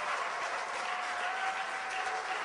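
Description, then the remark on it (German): An audience claps steadily for Jesus, a dense, even wash of many hands with no single claps standing out, holding at a constant level throughout without any voices. “Gebt ihm einen kräftigen Applaus.”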